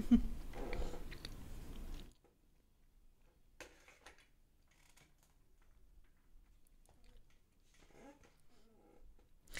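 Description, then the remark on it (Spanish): Chewing with soft, irregular mouth clicks and smacks over near silence, after a louder rustling crunch at the start. No one speaks. “no voy a estar masticando aquí enfrente de todos ustedes”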